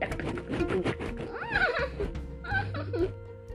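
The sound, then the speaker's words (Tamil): A storyteller imitates a horse neighing as it is stroked and starts to move, with a loud, wavering whinny that rises and falls in pitch, repeated in two bursts over a faint steady hum. “அப்புறம் மெதுவாக தடவியெல்லாம் கொடுத்து எடுத்து அப்படின்னா குதிரை”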